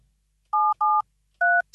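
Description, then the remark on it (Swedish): Three short, clear keypad tones from a new telephone, each a steady dual-pitched beep of about a quarter second, the first two close together and the third after a brief pause, with no talking. “Den här nya telefonen, den har helt andra”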